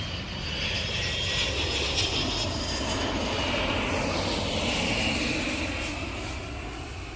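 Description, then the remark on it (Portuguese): A steady, loud airplane engine drone during a flight to São Paulo, Brazil, fills the whole clip, a broad continuous roar with a faint high whine riding on top, unbroken and with no voices. “Então sobrou ali de última hora vaga no avião e a gente foi finalmente para o Brasil”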